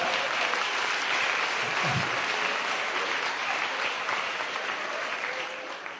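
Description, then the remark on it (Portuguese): Steady audience applause fills the whole stretch, a dense, even wash of many hands clapping at a consistent loudness, tapering off only slightly at the very end. “Eu, eu, quando ouço as palmas, eu fico bem preocupado.”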